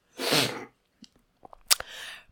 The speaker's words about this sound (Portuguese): Vou fungar outra vez.